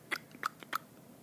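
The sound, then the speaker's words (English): Three sharp mouth clicks, evenly spaced and close to the mic, imitating the crackle of an egg hatching. Each click is brief and crisp against a quiet background, with no talking. “I'm trying to make a, a clicking sound on my microphone.”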